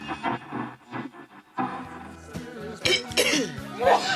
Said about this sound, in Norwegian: Nei, i all verden, hva er det som foregår i studio? Det er hosting og nysing.